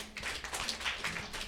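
A few audience members in Shanghai who have never had an English name clap sparsely, soft scattered hand claps in an irregular, uneven rhythm rather than full applause, with no voices over them.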